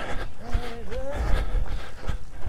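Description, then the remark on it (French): Loud, strained grunting and donkey-like braying noises from a man cycling past as he pedals, a few harsh drawn-out vocal bursts over a rumbling outdoor background. “Alors si vous entendez un bruit, c'est un monsieur qui passe en vélo, qui fait des bruits quand il pédale, qui fait des ânements.”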